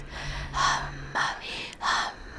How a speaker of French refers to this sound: Une respiration sans détour. Entrer dans le souffle de l'autre comme un jeu. Vous avancez, les yeux fermés toujours. Et vous respirez profondément.